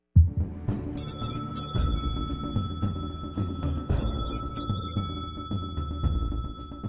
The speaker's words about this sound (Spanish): El teléfono sonó al cuarto para las nueve de la noche.